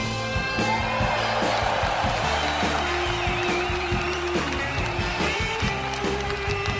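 A crowd applauds steadily with scattered cheers and whoops, the clapping forming a continuous dense wash over music playing underneath.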